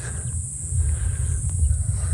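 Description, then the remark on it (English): Cicadas keep up a steady, thin, high-pitched drone on a sunny day beside a small, narrow paved path, half-buried under a heavy low rumble that sounds like wind on the microphone. No one speaks. “You can hear the cicadas the birds”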